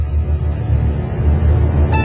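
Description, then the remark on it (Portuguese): A car engine rumbles steadily, a loud low drone throughout as the vehicle pulls away, with a brief tonal chirp near the end. “Entrei no carro e saí andando sem destino, me torturando com aquela história macabra.”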